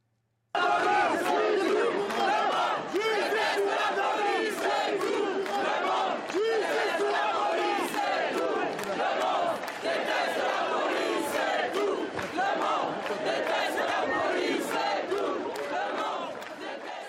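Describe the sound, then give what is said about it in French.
A large protest crowd chants a slogan in unison, loud and continuous for the whole stretch, with many voices blending into a rhythmic, shouted roar. “Alors, non seulement les, députés euh, et les filles donc, ne se soustraient ne se pas à la, manifestation au moment où ce slogan euh, est entonné.”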